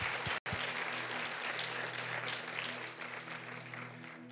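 A church audience claps loudly and steadily for the Lord, a dense wash of applause that keeps going after a brief break near the start, with a low sustained hum beneath it.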